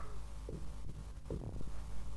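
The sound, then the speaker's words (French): Dull, muffled knocks sound from within a wall, a few low thuds spaced irregularly over a steady low hum, with no voices; the knocks are struck in counts matching the numbers of three winning racehorses. “L'esprit s'exécute et frappe successivement le nombre de coups correspondant au numéro des trois chevaux gagnants.”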